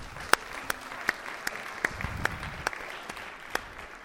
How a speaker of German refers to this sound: Und ich möchte euch nochmal ganz, ganz herzlich danken. Gebt euch selber nochmal einen Applaus.